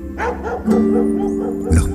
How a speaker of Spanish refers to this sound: perros ladran. Y ladran bajo la luna llena. Pero ¿saben qué? Da igual. Siempre ladran cuando alguien agita sus alas o se atreve a volar.